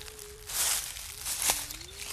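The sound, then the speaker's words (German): Footsteps crunch through dry fallen leaves and snap small twigs on a walk in a forest of birch, pine and oak trees, in two soft, brittle bursts of rustling, with a faint thin steady tone running underneath and no talking. “Wunderschön, wie das Laub unter unseren Füßen knistert, die Stöckle zerbrechet”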